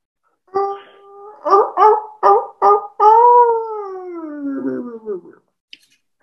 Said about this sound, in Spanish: Se va despertando Es el lobo.